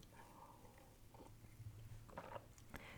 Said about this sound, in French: puis mon café qui refroidit. Attendez, je vais en prendre une gorgée.